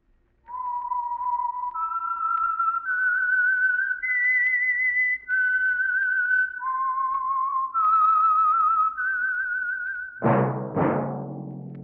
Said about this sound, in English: That whistle is your signal for the Signal Oil Program, The Whistler.